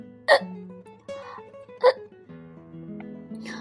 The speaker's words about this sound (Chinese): 正在他打嗝的时候